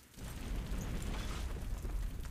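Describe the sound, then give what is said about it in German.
A deep, muffled boom of an explosion above the water at night, heard from underwater, rolls on as a thick low rumble, dull and heavy, with no sharp crack and no voices. “ihr seht das Licht von oben, wenn ihr euch umdreht im Wasser, dass oben eine Explosion die ähm, die Nacht erhält”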